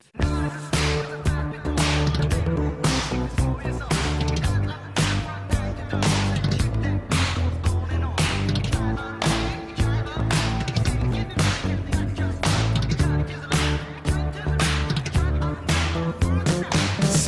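Instrumental intro of an early-1980s French proto-rap track: a steady, loud groove of sharp snare cracks over a repeating bassline and synth chords, with no vocals yet.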